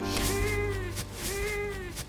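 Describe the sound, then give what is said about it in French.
A cat meows twice in a row, each call a drawn-out, slightly wavering tone, clear, with no talking over it. “Ok, après mon café du matin, et entre deux visioconférences avec les équipes de la rédaction et mon chat”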